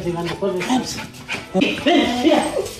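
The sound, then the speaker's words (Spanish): A dog whimpers and gives a few short, high barks, its whining rising and falling in pitch while people talk excitedly around it as someone enters with the dog. “entró con el perro.”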